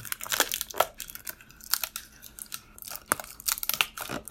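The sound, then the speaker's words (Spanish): Sticky tape peels and tears in a series of sharp, crackly bursts, fairly loud, as it is applied to cover something up, with rustling and handling noises between the rips and no one speaking. “Hay un poco de diurex para cubrir todo esto. Un poco de diurex por acá.”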